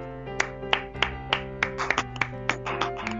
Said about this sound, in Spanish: Oh, sí, sí. Aplauso para la bella y hermosa Mirro locutora invitada que yo creo que ya se va a unir al equipo de esto que es ni más ni menos que Radio Consentido.